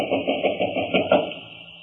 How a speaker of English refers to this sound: Well, there doesn't seem to be anyone stirring about inside. Knock again.